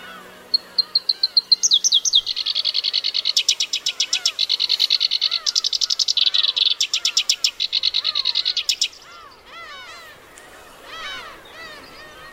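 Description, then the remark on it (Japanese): Black-browed reed warbler song in grassland with beach roses below a northern cliff: a long, complex run of rapid, high-pitched chirps and buzzy trills in quick rhythmic bursts, loud and continuous for about nine seconds, then softer scattered calls. “聞こえてきた複雑で抑揚に富んださえずりは「こよしきり」です”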